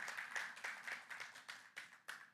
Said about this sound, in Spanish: Le podemos dar un fuerte aplauso al Señor porque Él es grande, Él es bueno, Él es todopoderoso.